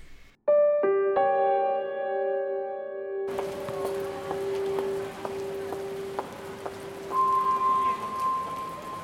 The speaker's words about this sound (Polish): Środowy wieczór w Bukareszcie. 8 kwietnia 1970 roku. Był bardzo zimny i deszczowy